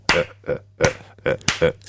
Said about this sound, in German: also ich klatsche